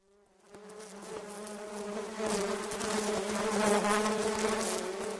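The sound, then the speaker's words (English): A dense swarm of bees buzzes steadily around a beehive above a house's front door, a low droning hum with layered harmonics that starts quietly and swells louder, continuing without pause and with no voices. “holding a rolled up newspaper and glaring at a beehive above Grandpa's front door.”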